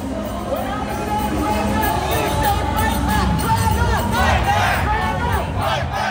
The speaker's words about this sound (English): Once the rally and march toward Union Square got underway, chants could be heard echoing and bouncing back between buildings on Market Street over a thousand people marched along like a school of fish.